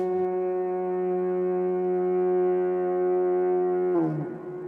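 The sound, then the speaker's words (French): A single long, steady horn note rings out in the woods in the evening with rich brassy overtones, held loudly for about four seconds before dropping and wavering briefly at the end. “J'aime le son du corps le soir au fond des bois, soit qu'il chante les pleurs de la biche aux abois ou l'adieu des chasseurs que l'écho faible accueille et que le vent du nord porte de feuille en feuille.”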